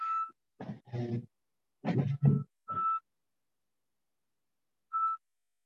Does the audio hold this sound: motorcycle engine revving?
no